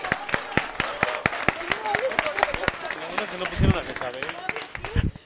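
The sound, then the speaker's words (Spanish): Steady, rhythmic hand claps from what sounds like a small group applauding for the women, fading out after a few seconds while voices murmur and talk underneath. “Bravo, bravo, un aplauso para las mujeres.”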